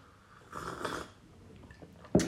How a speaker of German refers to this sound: Schönes Schlürfen, habe ich gehört, das ist, ein, das ist ein Geräusch, das die Menschen lieben. Für die ASMR-Fans.